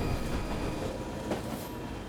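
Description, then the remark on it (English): A train approaching Alexandra Palace station in London, where it terminates, runs along the rails with a steady, continuous low rumble and faint whining tones, a single sharper clack breaking through partway. No one speaks. “So, what do I take away from my ghost train ride today?”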